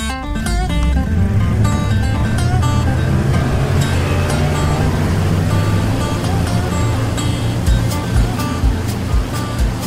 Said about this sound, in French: On part tous les bateaux, c'est impressionnant. Ça, c'est vraiment la partie la plus haute, c'est le launch de tous les bateaux le matin.